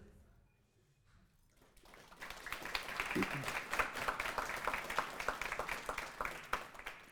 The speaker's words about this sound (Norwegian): Takk, det holder. Det sier jeg alltid når applausen dør ut.